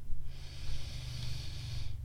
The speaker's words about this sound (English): So, why don't we take a breath together so that we can land? Breathing in